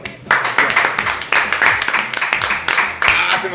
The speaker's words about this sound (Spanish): Aplausos.